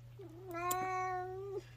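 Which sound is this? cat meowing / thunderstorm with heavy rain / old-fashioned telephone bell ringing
cat meowing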